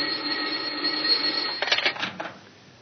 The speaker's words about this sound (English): It was just about then that the telephone on the inspector's desk added its voice to the situation.